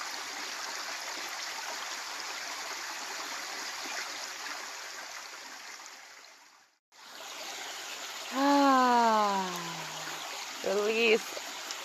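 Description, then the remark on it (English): A steady, continuous rush of flowing stream water fills the scene, briefly cutting out midway, then returning as a voice sounds two short, drawn-out tones over it. “all that excess energy, imagine it all just floating away with the water.”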